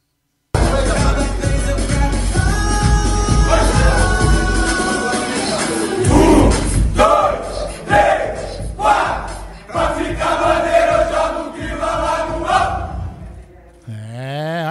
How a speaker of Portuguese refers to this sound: Posso colocar uma, uma musiquinha de dentro do vestiário do Palmeiras? Atenção, escutem aí.